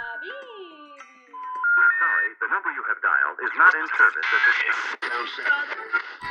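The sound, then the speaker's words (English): Tinny, band-limited music heard over a phone line while calling a psychic, a thin melody with warbling tones that grows louder and busier after the first second, continuing steadily to the end. “This is actually the music I heard over the phone.”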